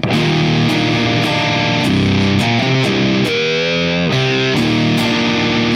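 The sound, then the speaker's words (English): Electric guitar played through a Maleficent EQ boost pedal, placed after a Xenia pedal, with mids and sweep set between 1 and 2 and a low, wide Q. The tone is loud and thick with dark, saturated tone, chunky chords and sliding riffs ringing with harmonic overtones, no voices. “well it definitely keeps it darker and it is definitely a volume boost right Xenia”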